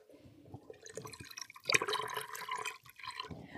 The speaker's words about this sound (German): Das Wasser läuft noch. Aktuell sind etwa ein Drittel des Aquariumwassers entfernt. Wir machen jetzt noch den einen Eimer hier voll und genau dann reicht es auch schon